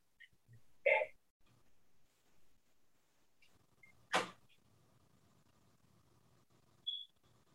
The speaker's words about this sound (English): I'm sorry. Let me open this door for this maintenance man. I'm sorry, guys.